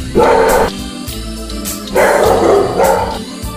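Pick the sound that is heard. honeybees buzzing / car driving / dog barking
dog barking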